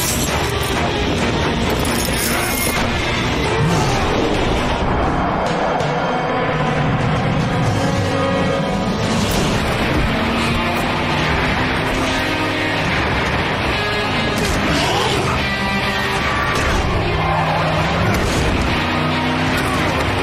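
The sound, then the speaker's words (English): A loud, chaotic film car chase sequence, including a fight on top of one of the trucks, with roaring engines, repeated booming crashes and impacts layered over a driving score, the dense mix never letting up for the whole stretch. “when I said that they did some other things within the car chase, because there's a, uh, a fight scene on top of the truck, on top of one of the trucks they have here, and I thought that that fight scene was done well, coinciding with the car chase.”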